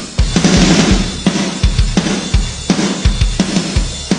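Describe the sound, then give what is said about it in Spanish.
A punchy drum loop with big, explosive snare hits treated with gated reverb, the reverb tail swelling and then cutting off abruptly, the classic snare sound of 80s pop and rock, over steady kick drum beats, loud and without any voices. “un efecto que se solía usar mucho en los 80s, que es un reverb que se corta. Se llama eh, gated reverb”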